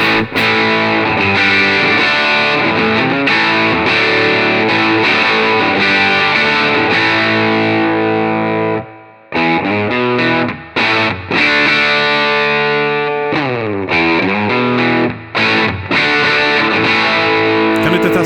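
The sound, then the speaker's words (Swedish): Overdriven electric guitar played through a Benson preamp with drive engaged, playing loud, sustained chords with a gritty, saturated tone, briefly cutting out mid-phrase before resuming with sliding, bending notes and stabs. “Jag tycker de här mickarna, eh, vi, vi, eh, vi testar Drive också, mm.”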